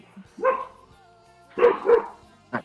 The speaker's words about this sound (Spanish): aplaquen ese pinche perro yo no es eh Puca, carajo! ¡Cállate!